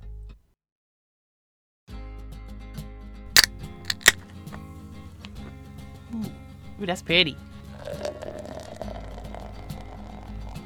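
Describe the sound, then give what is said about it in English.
A couple of sharp metallic clicks, like a bottle cap coming off, are followed by a steady fizzing pour of beer, with a person speaking briefly over the sounds. “Can you hear the beer? Ooh, wait. Can you hear the music in the beer? Ooh, that's a pour.”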